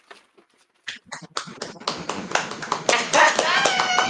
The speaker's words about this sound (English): Uh, let me give them a round of applause from Brown Girls Brew.